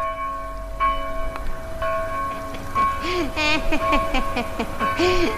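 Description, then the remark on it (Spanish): A church bell, rung by a bell-ringer pulling its rope, rings with long, sustained resonant tones that linger and overlap, struck a few times over a low rumbling background, with some faint voice-like sounds mixed in. “nadie más que él podría tocar la campana”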